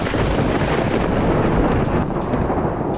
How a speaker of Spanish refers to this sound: De repente, se escuchó un trueno en los sembradíos.